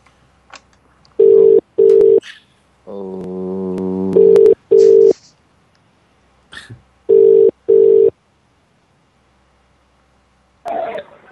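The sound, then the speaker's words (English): A telephone ringing tone sounds in paired bursts, two short rings repeated three times, with a brief harsher electronic tone between them and a faint cough-like noise near the end; the call may be to the chairman of Crystal Palace. “we might hear a ringing sound in a minute, and that might it might be the chairman of Crystal Palace.”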